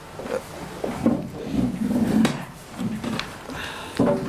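A chair is dragged and shifted into place for a guest to join the group, with several wooden scrapes and thumps scattered over a few seconds and no one speaking.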